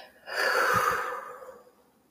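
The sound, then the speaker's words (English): A single long, deep breath in and out, taken as a breathing exercise while sitting up tall with a breathing ball, airy, swelling quickly and then slowly fading away with no talking around it. “Can you sit up tall and get your breathing ball out? Let's breathe in together.”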